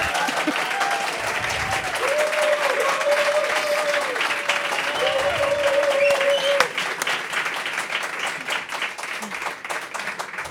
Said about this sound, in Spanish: Qué pocos aplausos se lleva Vicky Cantos, me estoy dando cuenta.